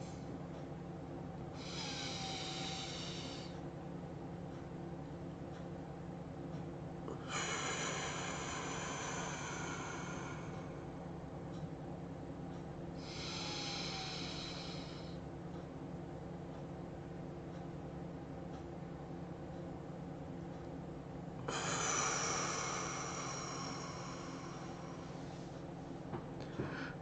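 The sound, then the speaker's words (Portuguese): Slow, deep breaths during a breathing exercise, about four long airy inhales and exhales spaced several seconds apart, over a steady low background hum, with no talking. “Todo mundo fazendo exercício de respiração da alegria, respirando alegria, enchendo o nosso ser de alegria.”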